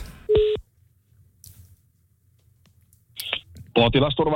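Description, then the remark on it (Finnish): A short electronic phone tone sounds during an outgoing call, then quiet line hiss, then another brief tone just before a voice answers and begins talking. “Hei, sellaista lähdin soittelee ja kyselee, tuli mieleen.”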